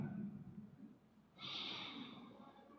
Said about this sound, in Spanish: Mire hoy cómo está respirando.